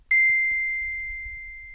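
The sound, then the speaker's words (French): A single bright notification gong chime rings out once from a phone, clear, its pure tone ringing on and slowly fading with no voices around it. “À l'intérieur du téléphone, le gong s'emballe.”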